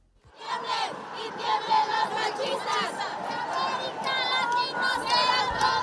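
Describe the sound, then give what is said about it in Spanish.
Thousands of women march through the streets of Angelópolis on International Women's Day, chanting and shouting together for an end to violence and for justice in a loud, sustained roar, high-pitched voices overlapping in rhythmic bursts throughout. “Miles de mujeres hicieron retumbar las calles de la Angelópolis para hacer escuchar sus reclamos de alto a la violencia y justicia.”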